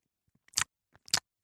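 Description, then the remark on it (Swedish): Two short, wet smacking bursts from a mouth faking the sound of eating an orange, about half a second apart, with a few faint clicks between them and no talking. “på ditt smackande avgöra om du faktiskt äter en apelsin eller bara fake smaskar.”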